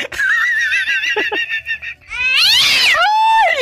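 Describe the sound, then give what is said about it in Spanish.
A cat named Satanás meows loudly and insistently, with a long wavering cry followed by a rising, strained yowl, no talking present. “La diva tiene un gatito que se llama Satanás.”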